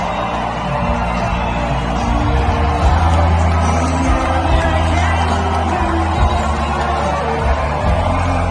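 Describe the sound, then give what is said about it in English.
A large crowd at a Trump rally cheers and roars in a loud, unbroken wash of noise, with scattered shouts rising above it for the full stretch and no single voice standing out. “So you can see the energy in the room, and you can see everyone that was at that Trump rally is considered an enemy of the United States of America as long as Biden is in office.”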